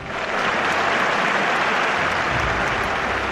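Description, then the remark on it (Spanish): An ovation: a crowd applauds steadily, a dense wash of many hands clapping at once that holds at a strong, even level for the whole few seconds. “Ahí está, y esta ovación, atentos, es para las ediciones golfas de Maldito Microbio, el talento, que por cierto ni se puede comprar ni robar, de Carmelo López junto al matador albaceteño Juan Luis Rodríguez.”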